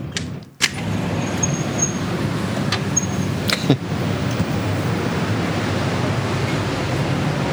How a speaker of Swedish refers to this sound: Jag kommer inte öppna balkongdörren för det kommer låta kaos då. Eller ska vi testa att göra det bara för att? Ja, det är klart så, ska göra. så folk får lyssna. Låt oss höra lite vågor för fan.